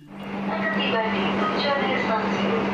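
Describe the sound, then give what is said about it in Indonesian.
Steady rumble and droning hum of an airport train carrying passengers along the rails, continuous and fairly loud, with faint voices murmuring underneath. “Yang istimewa dalam perjalanan kereta bandara ini, eh, selain kita tidak perlu bermacet-macetan, yang paling penting kita akan disuguhkan oleh pemandangan alam yang cukup indah sepanjang jalur kereta bandara ini.”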